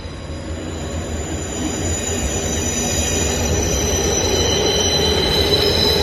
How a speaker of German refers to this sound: Berlin ist sehr laut, so wie ich es in Erinnerung habe. Sehr laut, sehr breite Straßen. Das war jetzt gerade die Straßenbahn.